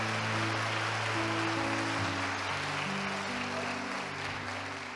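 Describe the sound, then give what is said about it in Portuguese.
A large crowd claps and cheers steadily for several seconds in praise to God, a dense wash of applause over sustained keyboard chords playing underneath. “E se você quer viver algo novo na sua vida, deixar vir para fora esse potencial, para o mundo saber que há algo grande dentro de você, faça um barulho para o Senhor, me ajude, exalte o nosso Deus.”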